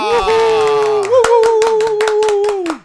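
An audience gives a warm round of applause to welcome a guest, sharp hand claps landing in a steady rhythm over a sustained, held tone, growing more regular after the first second before fading out at the end.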